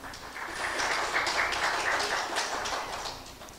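An audience at a church service applauds together, a dense, steady patter of many hands clapping that swells slightly and holds for several seconds before easing a little at the end, with no voices on top.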